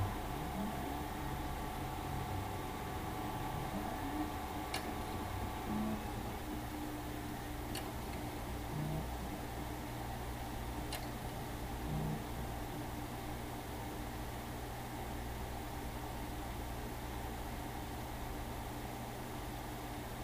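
One-terabyte hard drives spin up inside a Drobo storage unit as it boots, a low motor whine rising in pitch over a steady external fan hum, with a few sharp ticks of drive heads clicking now and then.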